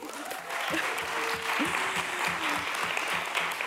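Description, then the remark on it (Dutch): The live studio audience of the talk show Late Night Talks claps steadily at the start of a new season, a dense wash of many hands with a few cheers and whoops rising over it, sustained at a fairly loud level throughout. “Applausje voor jezelf.”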